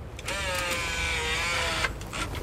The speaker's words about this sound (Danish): det er en ret tung dør. Øh, og der er, heller ikke, der er ikke rigtig nogen af de sådan... Nogle af der knapper på dem så, man, sådan, så de åbner. Man hører låsen åbne nu.